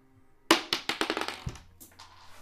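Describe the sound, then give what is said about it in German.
A die clatters across a hard table surface in a quick burst of sharp, bouncing clicks that speed up and fade, then drops off the table with a final thud and a faint settling rattle; it lands showing a four. “Er ist wieder vom Tisch gefallen, der Onkel.”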